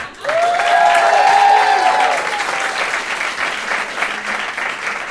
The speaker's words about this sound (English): Those of you think so, clap. Those of you who disagree with the asshole clapping to your left, make some noise.